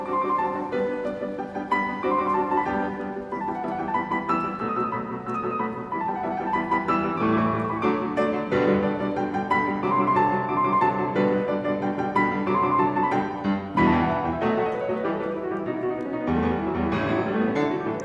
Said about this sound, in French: Quelques notes du rondo opus 129 de Ludwig van Beethoven interprété par Yevgeny Kissin lors d'un concert donné le 19 mai 2013 au Carnegie Hall de New York.